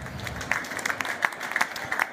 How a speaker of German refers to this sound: das macht Mut, dass sie schon Applaus kriegen. Ne?